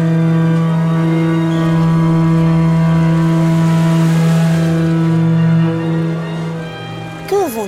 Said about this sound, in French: 36 000 hommes embarqués sur 55 bateaux quittent le port de Toulon. Oh, tu imagines le raffut